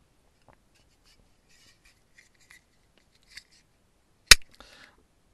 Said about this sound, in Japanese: ちょっとプルタブが開かないじゃない、乙女じゃん。あ、ちょちょちょちょちょ。ええー、今何が行われてるかというとですね、あの、強引にプルタブを開けようとしてる結果ですね、あの、爪の中にちょっとこう、プルタブのあれを、あれして入れて、あれして